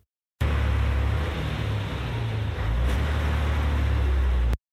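vehicle, bus driving

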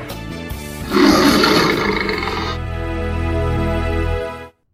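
animal, lion roaring

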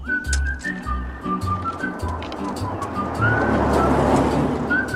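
vehicle, car sound effect

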